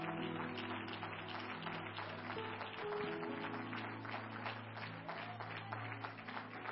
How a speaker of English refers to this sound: And so, to all of you that are here that has helped, that's really not even affiliated with this church, but yet you've helped, we say thank you. And I think one more time, we ought to just give them a hand clap of appreciation.